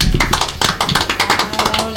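A couple of seconds of steady applause, many hands clapping in a dense, irregular patter of sharp claps at a fairly strong, even level, with no talking over it.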